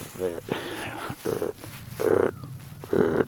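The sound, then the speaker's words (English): A man's voice imitates a deep, guttural deer grunt, repeated several times in short croaking bursts with brief pauses between, moderately loud. “like that, real deep grunt. And the higher the sound, the the younger the deer.”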